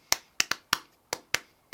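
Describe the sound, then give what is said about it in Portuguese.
Seven sharp, crisp hand claps in a loose rhythm, clapped as a beat for improvising words, some falling in quick pairs, with nothing else sounding between them and no voices. “é, tipo, o ritmo das palmas não faz sentido com o que eu ia dizer.”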